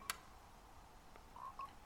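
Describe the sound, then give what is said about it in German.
A video game frog, jumping around in circles in a tree, croaks in two short, chirpy blips, preceded by a sharp click and a faint tick, all fairly quiet with no one talking. “Ey, neues Spiel. Frösche fangen.”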